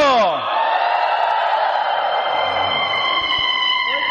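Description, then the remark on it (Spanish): An audience lets out a loud, sustained cry of jubilation, many voices joining in one high, ringing shout that is held steadily for about four seconds. “Primero, primero, fuerte, primero, así como cuando hacen el grito de júbilo, a ver, el grito de júbilo.”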